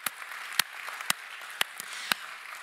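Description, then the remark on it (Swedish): An audience applauding: a soft, steady patter of many hands, with a few sharper individual claps punctuating it at irregular moments. Fairly quiet overall, with no voices. “Jag tycker vi ska vara lite osvenska och ge församlingen en applåd.”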